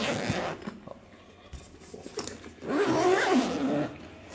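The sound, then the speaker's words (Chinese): A guitar case's sealing, dust- and water-resistant zipper being pulled open: a few short raspy scrapes, then a longer, louder continuous zip with a gritty, ratcheting texture. No one speaks. “好，我们把它打开。”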